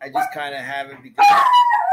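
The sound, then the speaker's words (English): A dog lets out a loud, drawn-out howl that slides slowly downward in pitch, following a man's brief speech. The howl fills the second half. “Sorry about my dog.”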